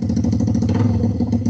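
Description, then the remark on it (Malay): A voice imitates a motorcycle exhaust by mouth, a steady low buzzing putter with rapid rhythmic pulses, loud, held continuously without any speech. “Itu baru, baru buat sound daripada mulut aku.”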